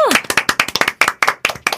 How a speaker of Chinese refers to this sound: 欢迎，我们一起用热烈的掌声欢迎他。